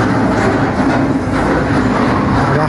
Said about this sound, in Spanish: Y aquí ya se escuchan las máquinas perforando para meter los pilotes. Esto ya no es mecánica de suelos. Esto ya son los hoyos para pilotear.